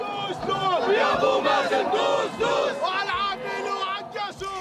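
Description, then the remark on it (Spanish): A large crowd of hundreds of Palestinians protesting in the Gaza Strip against normalization of relations between Israel and the United Arab Emirates chants slogans such as "No to normalization" in unison, loud, with rhythmic shouted phrases repeating over a dense wall of voices. “en la tarde de ayer, en la franja de Gaza, centenares de palestinos realizaron una marcha de protesta contra este acuerdo. No a la normalización se escuchaba, entre otras consignas.”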